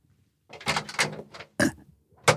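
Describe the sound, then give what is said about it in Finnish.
A door being opened to throw something outside, with several short scraping, rattling bursts, fairly loud, separated by brief pauses. No voices can be heard. “Ovesta ulos.”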